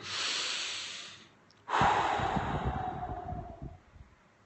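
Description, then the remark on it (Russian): A slow, deep breath in through the nose, a brief pause, then a long, loud exhale, with no talking, shown as the first step to take when something starts to annoy you. “Вдох-выдох.”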